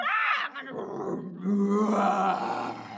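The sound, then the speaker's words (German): A person's voice imitates a lion's roar with a short rising growl, then a longer, rough, drawn-out roar after a brief pause. Both are fairly loud. “Ich möchte lieber ein Löwe sein”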